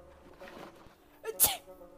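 A quick gasping intake of breath leads into a single sharp, forceful sneeze from a person with an allergy at a doctor's, fairly loud, followed by a soft breathy trail against a faint background hum.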